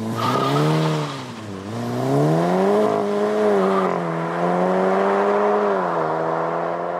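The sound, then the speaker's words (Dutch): A very expensive, fast Volkswagen Golf revs hard and accelerates, its loud engine drone dipping briefly before climbing and holding a strained, steady roar for several seconds, with no voices. “Ja, het is een hele dure golf.”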